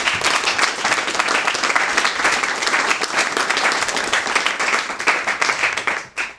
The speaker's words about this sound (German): Gut, dann nochmal einen großen Applaus